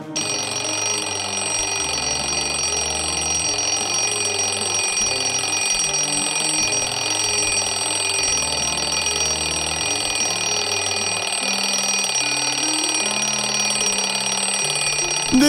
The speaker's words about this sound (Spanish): Cierras los ojos pensando cinco minutos más. Y no has terminado de cerrarlos cuando la alarma ya está sonando.